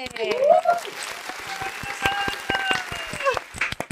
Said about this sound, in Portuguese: Uma salva de palmas, minha gente!